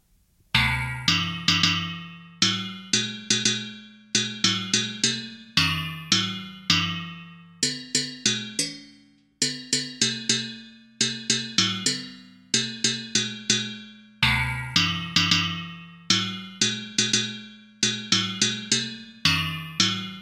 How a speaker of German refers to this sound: Wir spielen ja. mit den äh, fünf Töpfen äh, O Tannenbaum. Und los.